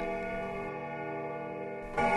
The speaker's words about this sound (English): The clock has just struck thirteen. It often strikes the wrong hour